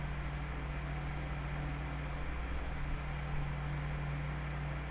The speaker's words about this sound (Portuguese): Putz, eu acho que a barrinha tá pegando um pouco do barulho do meu ventilador aqui atrás. Que é impossível estar sem ventilador, porque.